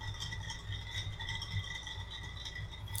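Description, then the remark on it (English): A steady, continuous rattling as someone mixes a soju drink, shaken or stirred in a container, holding an even loudness for about three seconds with no voices. “I'm mixing uh, my soju drink”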